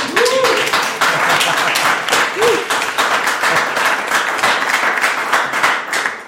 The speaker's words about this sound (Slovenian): Snemamo jo pred živim občinstvom, ki ga nihče ne sili ploskati. Uh, gostujemo namreč na prvem Grossmanovem festivalu fantastike, znanstvene fantastike in stripovskega v Ormožu. Uh, Ormož naj vas slišimo.